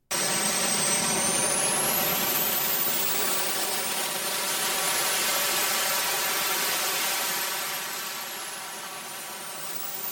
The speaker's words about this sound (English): Because I was recording it at the time, because again, it, it was amazing. Would you like to hear what it sounds like to stand next to a rocket powered jetpack?